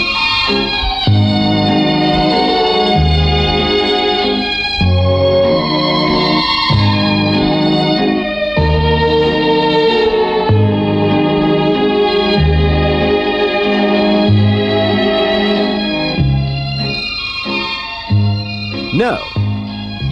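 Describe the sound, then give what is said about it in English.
A 1960s Mellotron keyboard, played by one person, produces string sounds in full sustained chords that shift in steady blocks, warm and orchestral-sounding, loud and continuous for about twenty seconds, ending with a brief swooping pitch glide. “you weren't listening to an orchestra, but one person sitting at the keyboard of this truly wonderful instrument of the 60s, the Mellotron.”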